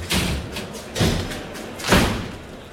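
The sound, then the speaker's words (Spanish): A bull, number 29 and the sixth and last of the afternoon's bullfight, bangs against the toril pen gate three times, about a second apart, each a heavy, booming thud with a rattling clang that fades between blows. No voices are heard. “está pegando el toro ahí, ¿eh?”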